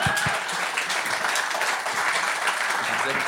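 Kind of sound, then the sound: crowd, audience applause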